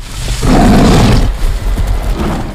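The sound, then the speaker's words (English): A deep, loud growling roar of an angry man-eating lion in a film trailer surges in for about a second, rough and broad, then trails off into a lower rumbling growl. No one speaks. “That's a man eating, human eating, I should say, lion that's like pissed off.”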